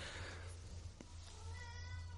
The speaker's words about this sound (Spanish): Mi gato está saludándolos. No sé si lo saludan. Hola, ¿cómo se llama tu gato? Ya lo escucharon.